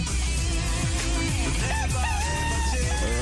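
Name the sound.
rooster crowing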